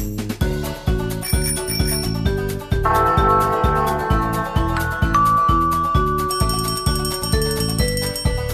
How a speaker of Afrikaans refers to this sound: en die etens klokkie sê tingelingeling.